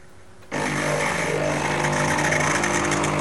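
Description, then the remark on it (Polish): After a brief quiet moment, a loud, steady rush of steam for milk hisses out abruptly as a valve knob is slowly turned, the steam pressure adjustable by the knob, and keeps going, with a low mechanical hum underneath; no one speaks. “E, no dobra, i teraz ja powoli przekręcam to pokrętło. Słychać leci para.”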